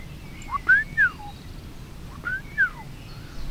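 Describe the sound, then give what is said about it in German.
A person whistles an imitation of a golden oriole's call to lure the bird: two short, fluty, liquid phrases a second apart, clear over a quiet background hiss. “Vom Pirol kann man ja ganz, eigentlich ganz gut nachmachen.”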